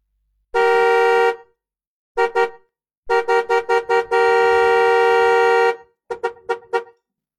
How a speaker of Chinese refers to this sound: 好，那么我们听到了，是吧？我们听到了这个汽车的喇叭声，它是你看它一条一条的这种东西哈，它一条一条的。